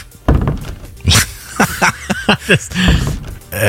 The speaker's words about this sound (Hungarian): Hát ez a WC ajtó. becsukódás. lesz. Pontosan, ez tényleg a WC ajtó.